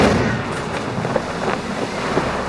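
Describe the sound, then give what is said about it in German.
Muffled cannon fire rumbles from a ship in a sea battle, a steady roar of battle noise broken by a few soft booms spread across the moment, as cannonballs strike a black ship with black sails, no voices. “Das Kanonenfeuer schlug auf ein schwarzes Schiff mit ebenso schwarzen Segeln ein.”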